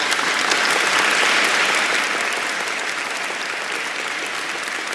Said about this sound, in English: First of all, let me give a round of applause to the people that's on my Patreon.